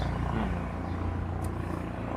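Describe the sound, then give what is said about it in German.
A helicopter on a deployment drones overhead: a steady, loud low rotor rumble with a constant engine hum throughout, no voices. “Okay, auf jeden Fall hat, Herr, hat der Sprecher vom Innenministerium dann nochmal betont, Hubschrauber-Einsatz, ein Hubschrauber-Einsatz nach dem anderen hier.”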